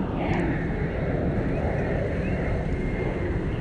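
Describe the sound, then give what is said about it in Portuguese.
An airplane passes overhead at a beach beside an airport, a steady, fairly loud low rumble with a faint higher whine drifting above it, filling the whole stretch with no voices. “Só um momento, o avião passando.”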